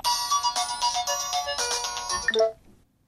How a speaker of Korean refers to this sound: 한 달 뒤 어느 날밤 양락에게 걸려온 전화 한 통.